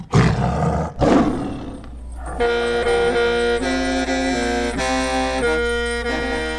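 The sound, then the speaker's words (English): Two loud, rough tiger roars rumble in quick succession in a retelling of the Hmong folk tale Yer and the Tiger, then give way to a sustained musical passage with held tonal notes. “Today I'm going to be retelling the classic Hmong folk tale, Yer and the Tiger.”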